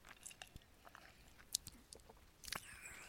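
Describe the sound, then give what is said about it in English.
Mouth sounds of someone sipping a Four Loko malt beverage from the Drink Four Brewing Company: scattered wet clicks and smacks, then a brief louder slurp and swallow near the end, with no talking. “Those of you out there that know uh, what I'm talking about, uh, when you do sip these down,”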